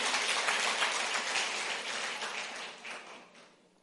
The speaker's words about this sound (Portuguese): Dê um forte aplauso à palavra do Senhor. Aleluia.